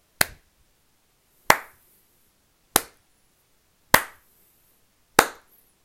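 Five sharp, loud hand claps spaced evenly about a second and a quarter apart, each cracking crisply and fading quickly in a slow, deliberate rhythm with silence between them.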